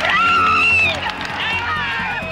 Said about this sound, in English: There was this universal cry of the crowd has realised it. Laurent Fignon has lost the Tour de France by eight seconds.